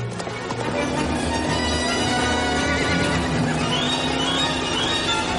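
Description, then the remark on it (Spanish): A horse whinnies loudly over the steady, pounding rhythm of galloping hooves as Indy rides after a tank, part of a dense, continuous wash of action noise with no one speaking. “Salta del caballo y cae sobre el blindado.”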